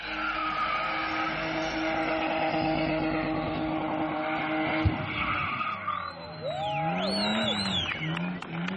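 car tires skidding

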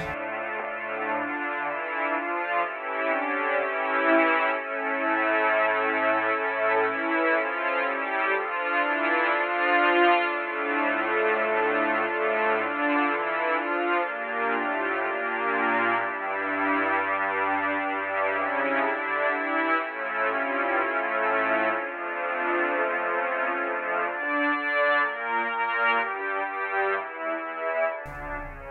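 film soundtrack music

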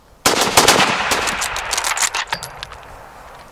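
firing squad rifle volley

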